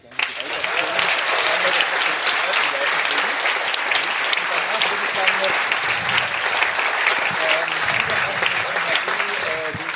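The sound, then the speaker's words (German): A live audience at a camp applauds loudly and steadily for the full stretch, dense clapping from many hands with a few voices mixed in, sustained without a break, applauding clubs such as CCCB, Entropia and Vollgas Crew for building the camp. “irgendwie freut mich das immer sehr zu sehen, was äh, so der CCCB und die, an, die anderen Clubs Entropia, Cardus, Vollgas Crew hier so einfach mal in ihrer Freizeit aufbauen und da dürft ihr gerne einmal für ganz laut applaudieren.”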